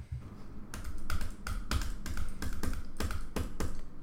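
A computer mouse clicks about a dozen times in a quick, slightly uneven rhythm, each click sharp, with no talking over it.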